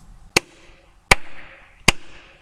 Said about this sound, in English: The sound of two hands clapping